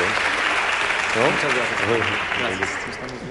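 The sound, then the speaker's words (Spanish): A crowd applauds steadily, a dense wash of clapping, while a man's voice speaks over it intermittently. “No sé, vamos a preguntar, ¿para quién son los aplausos?”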